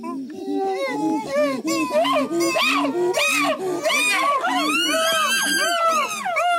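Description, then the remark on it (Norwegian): A loud, excited chorus of chimpanzee calls made on finding food, many overlapping hoots, grunts and rising squeals from several animals at once, continuous throughout. “Hun har også forska på sjimpansespråk, og slik her høres det ut når de har funnet mat.”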